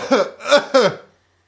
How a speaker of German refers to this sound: Das war jetzt kein Wettbewerb, dass du lauter husten sollst. Also das ist schon echt ein relativ lautes Husten.